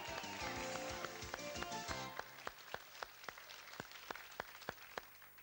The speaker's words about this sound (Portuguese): Minhas senhoras e meus senhores, uma grande salva de palmas para Adolf Hitler.